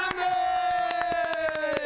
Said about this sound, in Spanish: ¡Buena ahí. Aplausos, aplausos.